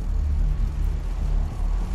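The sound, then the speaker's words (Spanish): A car engine is started and idles steadily, a low, even rumble with a faint rhythmic throb that holds constant throughout, with no voices. “Decidieron encender el motor del auto.”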